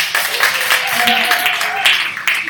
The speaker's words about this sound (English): Let's give the AV team a round of applause.